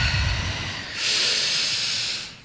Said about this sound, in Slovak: Má to byť také intenzívnejšie dýchanie, to je ono.